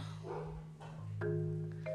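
A small dog gives a couple of short, high yappy barks near the end, over a steady low background hum, with no one talking.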